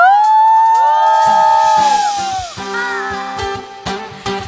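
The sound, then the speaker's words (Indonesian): A worshipping audience erupts in loud cheering for Jesus, with high whoops and shouts rising over a dense roar, then continuing alongside scattered sharp claps and bangs toward the end. “Sorakan,”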